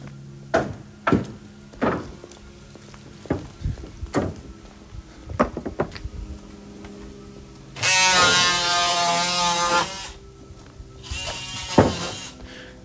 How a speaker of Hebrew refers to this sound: רגע, אני אעצור שנייה, יש פה רעש עובדים על הספסל שעברתי עד אליו מקודם.